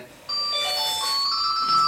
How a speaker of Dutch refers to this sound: Telefoon.